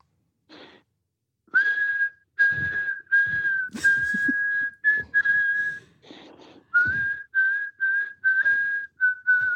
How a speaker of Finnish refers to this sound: Kyllä, hei hienoa, hienoa viheltelyä oli ja, ja, ja kaikki tiesi jotakin.